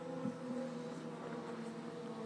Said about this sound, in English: Let the motorcycles pass.